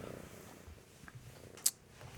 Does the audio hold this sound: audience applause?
no